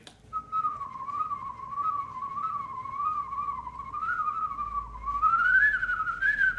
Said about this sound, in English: Whistling can be a very, very versatile instrument. I do call it an instrument. There's, there's a, a technical aspect